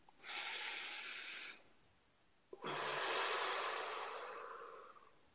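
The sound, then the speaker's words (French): A slow, deep breath: a steady airy inhale of over a second, a brief pause, then a long, gradually fading exhale, with no talking. “Alors, une respiration.”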